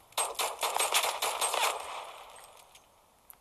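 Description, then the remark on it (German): A rapid burst of sharp video game pistol shots, roughly a dozen in quick succession over about a second and a half, then a fading tail and one small click at the end. “Ich will mal sehen, wie die Pistole schießt.”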